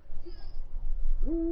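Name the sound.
eagle-owl hooting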